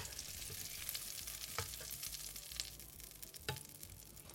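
Walnut-sized balls sizzle steadily as they fry in a hot pan, a dense crackling hiss throughout with a few sharper pops and clinks of stirring, fairly quiet, with no talking.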